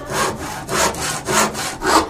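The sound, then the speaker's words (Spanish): A hand saw cuts through wood in steady back-and-forth strokes, about four rasping pushes in quick even rhythm, clear with no voices. “Yo soy el carpintero y me pongo a serruchar.”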